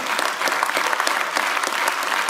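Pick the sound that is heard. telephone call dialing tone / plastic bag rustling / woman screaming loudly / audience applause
audience applause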